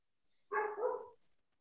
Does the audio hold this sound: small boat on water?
no